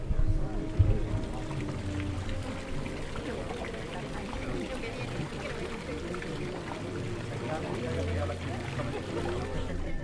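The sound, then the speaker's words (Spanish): Water from a vertical jet splashes into the upper basin of a two-basin fountain, which overflows to fill the lower basin, in a steady, continuous wash, with a man's voice talking over it throughout. “el de abajo se llena porque rebosa el de arriba, que es el que recoge este chorro que sale vertical.”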